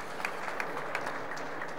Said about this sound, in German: Sie dürfen auch durchaus das mal klatschen, also wir müssen das ja nicht ne, zu Bier ernst nehmen.